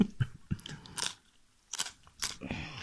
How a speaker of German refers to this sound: Ich esse nur ein Stück Weißkohl.